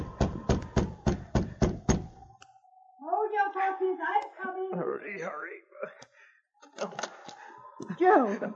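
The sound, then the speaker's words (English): A fist pounds hard on the wooden door of a small cabin on the banks of a frozen creek in the snow, about seven heavy, rapid, loud blows in a steady rhythm; afterward, voices start talking excitedly. “A few moments later, he was pounding on the door.”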